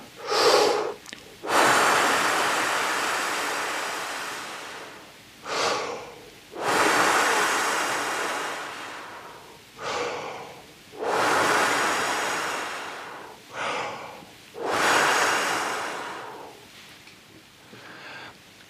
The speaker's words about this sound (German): drei bis fünf Pusten und jede Puste sollte ungefähr mindestens drei, besser noch sieben Sekunden lang sein